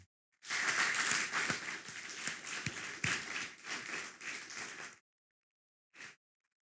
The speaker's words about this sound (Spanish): Así que vuelve a dar un fuerte aplauso al Eterno.